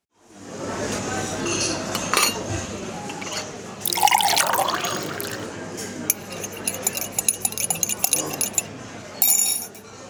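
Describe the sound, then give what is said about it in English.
Liquid pours steadily into a cup, splashing and gurgling with a rising tone as it fills, followed by a few light clinks and drips near the end. “pour yourself a cup of kindness and take a seat with us in the Curiosity Room”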